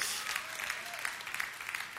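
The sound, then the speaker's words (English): A church audience claps steadily for the pastor's son, a dense wash of many hands with sharp bright spikes scattered throughout, sustained at an even level without a clear beat. “I'm so happy you clapped because one day he will be your pastor.”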